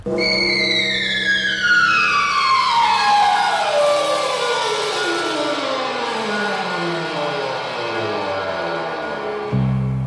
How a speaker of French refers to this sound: une femme qui crie, mais à la place d'entendre son cri organiquement, on entend descendre aux ondes Marteneau qui se substituent à elle, et là commence un grand thème en forme de grand crescendo, c'est magique.